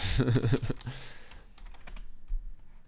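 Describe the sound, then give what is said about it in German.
Quick, irregular clatter of fingers typing a web search on a computer keyboard, with a short burst of voice or laughter at the start before the key clicks continue alone. “Kannst du ja mal gleich googeln, ob sie.”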